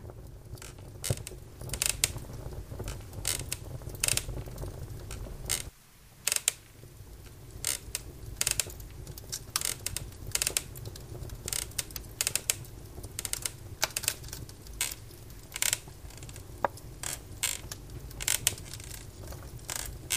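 A fire crackles steadily in the fireplace of a wooden hut, with irregular sharp pops and snaps over a soft low rumble, moderately quiet, and no voices.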